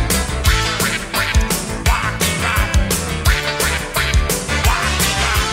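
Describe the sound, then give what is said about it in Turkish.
Duck-like quacking rings out over loud, driving band music, with repeated nasal quacks riding a steady, punchy drumbeat and thick guitar and bass throughout. “Avaz avaz bağırdım Vak vak vak”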